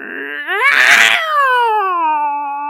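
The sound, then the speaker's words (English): A loud, drawn-out cat yowl that rises, breaks into a harsh, strained cry in the middle, then trails off into a long wavering whine, heard alone. “Making that super annoying cat noise,”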